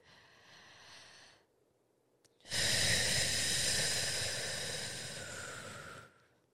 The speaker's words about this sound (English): Just a really long, deep breath. Let's take one now together.